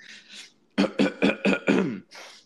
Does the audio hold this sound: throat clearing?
yes